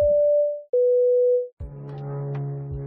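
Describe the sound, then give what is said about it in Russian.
An airplane passing over very low drones loudly and steadily, with a strong low hum and broad engine roar, cutting in abruptly after two flat electronic tone beeps. “А он, походу, очень низко пролетел, во-первых.”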